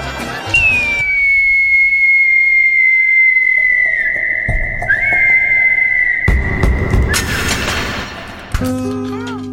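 A long, shrill cartoon falling whistle, marking a fall, holds a high, slowly sagging tone for several seconds, broken by heavy booming crashes near the end.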